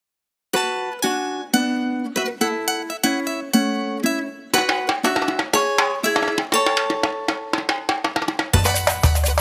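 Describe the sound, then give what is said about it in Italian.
A live samba percussion band, performing at Musica Distesa in 2018, plays a steady, driving rhythm of ringing metallic strikes, building in density before heavy drums crash in loudly at the end. “e ai … per le emozioni e per avermi concesso l'utilizzo dell'audio della loro esibizione a musica distesa nel 2018.”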